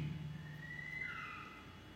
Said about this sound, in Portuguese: Ele passa voando e piando. Não sei se é uma coruja. Mas o pássaro, ela está aqui conosco.